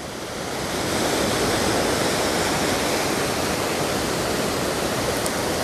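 Steady, continuous wash of ocean surf at the shore, rising in from quiet over the first second and then holding a constant, full roar with no voices.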